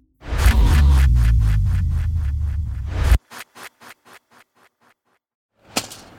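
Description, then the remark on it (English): A rake rasps loudly and rhythmically against the ground for a few seconds, then strikes it in a quick series of sharp whacks that fade, followed by one last louder hit. “It's the sound of someone whacking the ground with a rake.”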